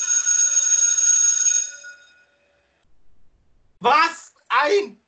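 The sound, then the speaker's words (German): A single bell strike, rung to mark the next segment, rings out with a bright, shimmering tone that slowly fades over about two seconds. After a short pause, a voice briefly speaks. “Jetzt muss ich mal kurz äh, Glocke läuten beim nächsten Segment.”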